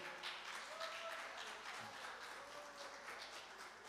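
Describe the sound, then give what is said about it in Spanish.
An audience applauds steadily, a dense wash of many hands clapping together, with faint voices and a few cheers mixed into the crowd noise, giving a loud round of applause to God. “Dale un fuerte aplauso a Dios por eso.”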